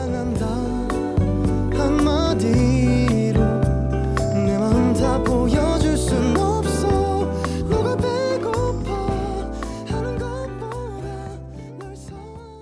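A pop song played during a DJ talk show plays at a steady, full level, with layered instruments, a regular beat and a smooth melodic line, easing slightly softer toward the end. No one talks over it.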